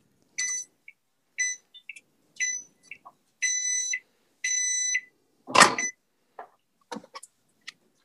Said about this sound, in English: I hear that microwave. Here comes the microwave.